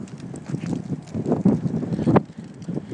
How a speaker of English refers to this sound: Hi kids, it's cold you can hear the wind. Listen.